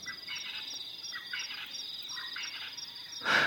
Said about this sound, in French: Dans ce paysage de sons, on entend un francolin du Natal et les insectes.